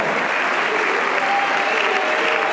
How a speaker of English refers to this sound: Oh, hallelujah. hallelujah. Give God a hand praise right now.